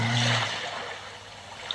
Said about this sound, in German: Nee, du, nee auch bin, bin ich wollte gerade sagen, machst du die Wellen mal leiser? Kann ich gar nicht. Wie soll ich das machen?